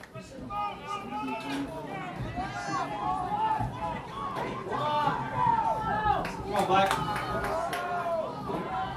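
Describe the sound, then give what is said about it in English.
Steady crowd chatter and overlapping voices fill the whole stretch as the crowd fills up the stands at a football game, a continuous murmur of many people talking at once with occasional louder shouts rising above the babble. “Crowd is filling up.”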